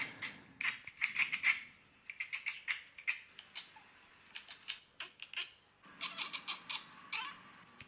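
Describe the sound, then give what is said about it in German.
Rapid, clicky chirps and chattering bursts from a cat chattering at birds, coming in quick irregular clusters with brief pauses, moderately loud, no talking. “Cats Chirping and Chattering, Cat Compilation.”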